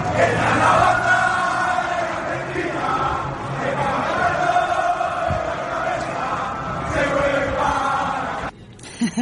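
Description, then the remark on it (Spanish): A football fans' cheering sound effect: a crowd roars and chants steadily, with many voices blending into a loud, continuous swell of cheering that cuts off abruptly near the end, leaving a few faint thumps. “Inserte, inserte sonido de hinchada.”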